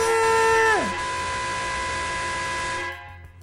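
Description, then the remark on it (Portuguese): A short jingle for the show's 'Bonequinho Hard' segment: a loud, brassy horn-like tone slides sharply down in pitch, then a steady buzzing chord holds for about two seconds before cutting off. No one talks over it. “E agora roda a vinheta, seu Raul Bianchi.”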